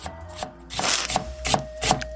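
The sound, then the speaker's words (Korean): A knife chops on a cutting board: about six crisp, woody knocks at a steady, unhurried pace, each with a short scraping edge. No one speaks. “너의 매력을 더 깊이 알기 위해서 이번엔 칼로 한번 썰어보겠어.”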